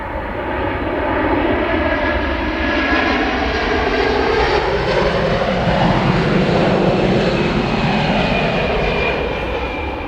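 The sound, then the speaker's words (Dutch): A steady, loud airplane engine drone fills the whole recording, a broad rumbling roar with faint tonal whines that slowly shift in pitch as the aircraft passes over the municipality of Beek. No one speaks. “Dus we hebben een vleegmachine gezien.”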